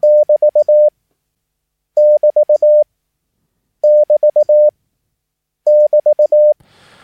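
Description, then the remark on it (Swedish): A steady, fairly loud Morse code tone keys out the section separator sign, long-short-short-short-long, four times with brief pauses between repetitions. Faint static creeps in at the very end. “Och eh, det här sektionssepareringstecknet det är ett Och det låter så här.”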